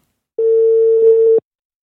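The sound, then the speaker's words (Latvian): A single steady phone ringing tone as a journalist calls politician Andrejs Elksniņš, who does not answer; one flat electronic beep lasting about a second, clear and fairly loud, with no voices around it. “Tomēr norunātajā laikā viņš uz manu zvanu vairs neatbildēja.”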